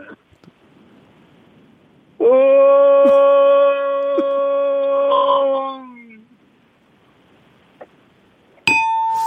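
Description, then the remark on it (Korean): A voice imitates a distant motorcycle as heard at dawn from an apartment by a highway, with one steady, buzzing drone held for about four seconds, then sliding slightly down in pitch as it fades. A brief bright tone follows at the end. “예, 고속도로 새벽 새벽에 아파트에 있으면 잘 멀리서 이제 오토바이 소리 예, 나는 소리가 들려.”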